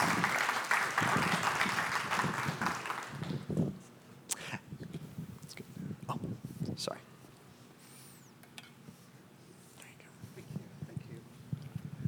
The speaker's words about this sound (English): Yeah, you should clap for them. I love these folks.